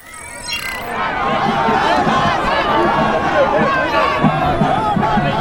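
A dense crowd of many voices chattering and calling out at once on the sandy Sankoré square in the centre of Timbuktu, Mali, near the earthen mosque, a steady loud babble with no single voice standing out.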